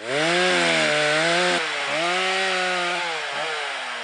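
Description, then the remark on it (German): A chainsaw felling orange trees in Turkey runs loud for about four seconds, its engine revving and dipping in pitch a few times as it bites into wood, with no voices. “Dann würden auch die Geräusche des Abholzens nach und nach verstummen.”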